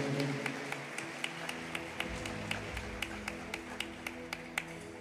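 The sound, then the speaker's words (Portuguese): An audience claps loudly for Jesus in a steady, rhythmic beat, sharp claps landing about three times a second over a low sustained keyboard drone, with no talking. “Aplaude bem forte a Jesus.”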